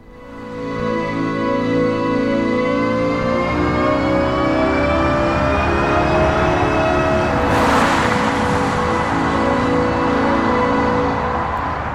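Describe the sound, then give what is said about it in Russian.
A futuristic, spaceship-like electric car warning tone hums steadily with layered rising and falling harmonic pitches, sweeping gradually as if a vehicle glides past, with a brief whoosh near the end; no speech. “Вот с таким звуком будут проезжать электромобили э, скоро.”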